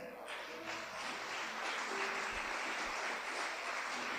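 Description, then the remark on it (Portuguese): A large crowd claps steadily and loudly for several seconds, a dense, continuous wash of applause given in praise of the Lord, with faint voices mixed in beneath it. “Pode aplaudir o Senhor.”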